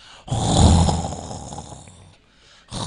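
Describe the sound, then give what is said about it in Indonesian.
A person imitates the loud snoring of a student sharing their room, with one long, rough, rattling snore lasting about two seconds, a brief pause, then another snore starting. “Santri kula niku ngoroke banter.”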